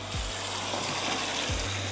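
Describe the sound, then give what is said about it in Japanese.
Steady, even hiss of falling rain, heard while walking outdoors, fills the whole two seconds, with a couple of brief low rumbling swells underneath; no one speaks. “あの今日もねちょっと雨が降って今こう歩いて話をしてるんですけども”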